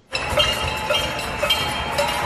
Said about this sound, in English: And I taped this last night. Listen to this. This and and people are banging on pots and pans. It sounds like cowbell. Listen.